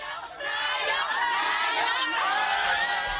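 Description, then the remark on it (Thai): A dense crowd of Thai people in New York cheers and shouts in welcome, calling out 'Prime Minister' to Pita Limjaroenrat, former Move Forward Party leader, inside the Thai Buddhist temple Wat Thai Thavornvanaram in Queens, New York. Many overlapping voices, loud and sustained for a few seconds. “เสียงร้องต้อนรับและการเรียกว่านายก ที่ดังขึ้นภายในวัดพุทธไทยถาวรวนาราม ในย่านควีนส์คือกำลังใจที่ชาวไทยในนิวยอร์กมอบให้กับพิธาลิ้มเจริญรัตอดีตหัวหน้าพักก้าวไกลที่การเยี่ยมเยือนชาวไทยเป็นหมุดหมายหนึ่งในวาระการเดินทางมาสหรัฐในสัปดาห์นี้”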